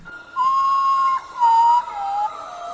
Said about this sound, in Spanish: Pero bueno, pues vamos a escuchar el sonido que emiten que sí está, es una especie de lechuza, ¿eh? no todas lo hacen, pero sí es una de las más acá tetriconas, ¿no?